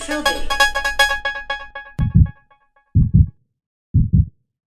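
A bright, tinkling melodic jingle plays for about two seconds, then three deep, thudding heartbeats follow alone, each a close double thump spaced roughly a second apart.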